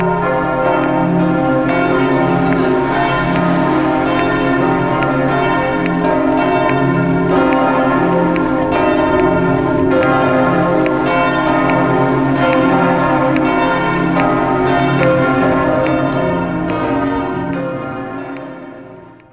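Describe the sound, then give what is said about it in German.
Church bells peal loudly and continuously, several bells overlapping in a rich, ringing clang that fills the whole stretch before fading slightly at the end. No voices are heard. “Das äh, Grünsignal der Ampel, das wird komplett übertönt vom Kirchenglocken.”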